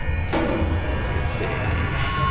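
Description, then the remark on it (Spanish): A steady wash of clapping from an audience, dense and continuous at a fairly even level throughout, with no voices standing out above it. “Nuevamente, un aplauso.”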